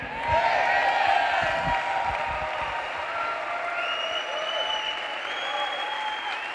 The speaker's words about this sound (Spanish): Vamos, apláudele fuerte al Señor. Apláudele fuerte al Señor.